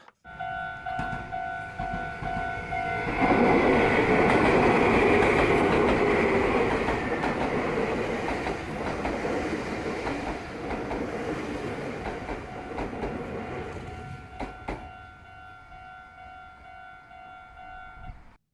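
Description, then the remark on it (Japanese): A Meitetsu electric train arrives at Minami-Kagiya station in Tokai, Aichi Prefecture, Japan, rolling in and passing by with a loud rumble and rattle, while a level crossing signal rings steadily throughout; the signal continues briefly after the train noise fades. “愛知県東海市の名鉄南鍵谷駅の音、えー、名鉄電車の軽音機駅に到着をする電車の音も入っていると”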